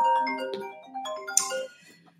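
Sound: mobile phone ringtone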